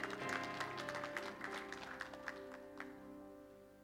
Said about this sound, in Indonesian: Berikan tepuk tangan yang meriah buat Tuhan.